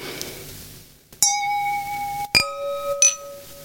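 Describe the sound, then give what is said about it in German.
Wine glasses of Pinot Grigio clink together three times in a toast, each bright strike leaving a clear, sustained ringing tone that slowly fades. No voices accompany the clinks. “Und deswegen möchte ich jetzt mit euch beiden und mit euch da draußen anstoßen äh, auf die Bewegung.”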